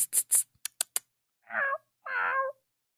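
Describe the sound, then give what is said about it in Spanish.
Someone makes a cat imitation: a quick run of short hissing, sibilant calls, then two drawn-out meows, the second longer and louder, convincingly catlike. “Estoy confundido, no sé si es un gato de verdad ahora,”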